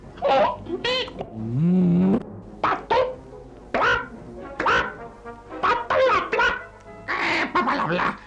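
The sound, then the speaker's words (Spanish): A voice imitates a duck, giving a rapid string of nasal quacks in short bursts with one drawn-out, wavering call partway through, loud. “Pasó un pato.”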